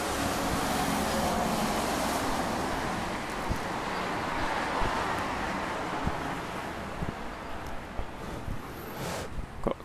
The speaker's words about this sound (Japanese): 今日は車がよく通りますね